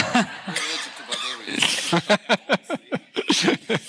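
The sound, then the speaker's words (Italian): A series of sharp coughs comes in quick bursts, building into a rhythmic fit of several harsh hacks near the end, with a little voiced sound mixed in at the start. “Scusate, mi sono allergico ai barbari, evidentemente.”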